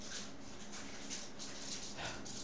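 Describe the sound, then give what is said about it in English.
A young dog, Dante, whimpers and yips faintly in short, repeated high-pitched bursts while running around everywhere, over a steady background hiss, with no one talking. “Sorry, my my young dog Dante is just running around everywhere.”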